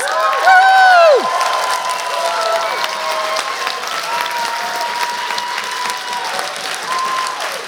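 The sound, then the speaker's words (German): A crowd bursts into sustained applause for Jesus with whoops and cheers, including a high rising-and-falling shout near the start, the steady clapping continuing loudly throughout. “Kommt, wir, wir geben Jesus mal so einen richtig guten Applaus.”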